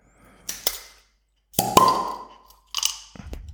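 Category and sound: food or drink, beer bottle being opened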